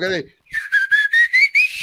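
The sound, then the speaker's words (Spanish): After a brief vocal sound, a person whistles a quick string of about six short, choppy notes that climb gradually in pitch, fairly loud, mimicking the whistled language of an ethnic group in Oaxaca, Mexico. “O sea, tienen un silbido distinto para cada cosa.”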